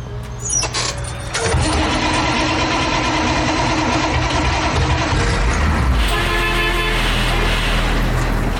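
A city bus in Mexico City, its engine rumbling and idling steadily, loud and continuous, with a brief horn toot sounding partway through; no one speaks.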